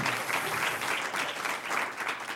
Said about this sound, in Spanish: Un aplauso.